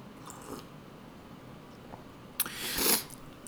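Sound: sipping and swallowing coffee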